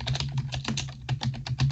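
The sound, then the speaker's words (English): Rapid, continuous typing on a computer keyboard, a dense flurry of crisp key clicks in quick irregular bursts, with a low steady hum underneath and no talking. “This is this is how fast I type.”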